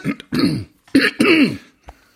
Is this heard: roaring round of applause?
no